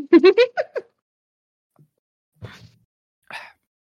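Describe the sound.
A short burst of voiced sound, then quiet, followed by a low gulp of cola and a breathy exhale afterward.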